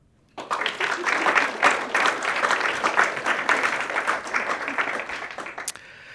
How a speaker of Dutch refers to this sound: En jullie mogen klappen.